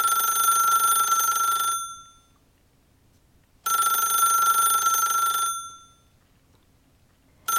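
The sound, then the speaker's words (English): A bright, buzzing telephone-style ring from a toy rotary phone sitting on a playmat sounds in two long bursts separated by silent pauses, with a third ring just beginning at the end. It is fairly loud, with no voices. “And sitting in the middle of the playmat was the rotary phone. You saw it, and it started ringing again.”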